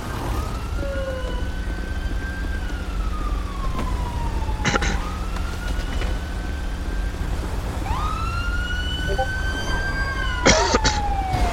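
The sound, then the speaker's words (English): An ambulance siren wails in long rising and falling sweeps, about two full cycles, loud over a steady low engine and road rumble, with a couple of brief sharp bursts. “Roll AM. I'm rolling ambulance.”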